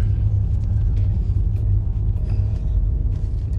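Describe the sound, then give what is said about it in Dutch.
A scooter riding on a bicycle path drones steadily with a loud, low rumble for a few seconds, with faint ticks and clatter on top and no one speaking. “Op het fietspad, hè, met die scooter.”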